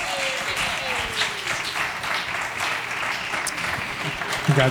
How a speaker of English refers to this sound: Congratulations. Round of applause for our winners.